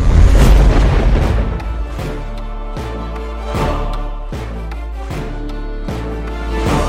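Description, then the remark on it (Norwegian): A deep, loud cinematic boom opens, then steady booming impacts strike roughly every second over sustained, swelling music from the trailer of a stage musical, with no one speaking. “jeg har tatt med lyden fra traileren til dere”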